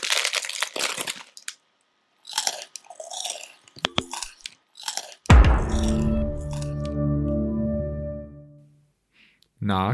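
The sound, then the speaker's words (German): A crisp packet crinkles and rustles in irregular crunchy bursts for the first few seconds, fairly loud, before giving way to a sustained humming tone. “Und nein, ich meine auch nicht die Chipstüte, sondern dieses, ja, fast schon ikonische Geräusch am Ende.”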